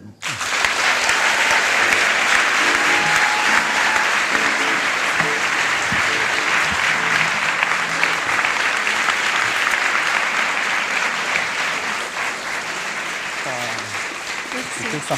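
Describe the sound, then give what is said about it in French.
Sustained audience applause at an evening talk, welcoming a speaker who is about to tell of her journey, fills the whole stretch, a dense, steady wash of many hands clapping at a constant loud level that eases only slightly toward the end. “Merci d'applaudir très très fort Irène.”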